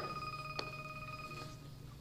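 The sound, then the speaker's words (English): The speaker's wife's phone rings faintly in the background, a steady electronic tone sustained throughout with one brief click partway through. No one speaks. “That's my wife's phone, by the way.”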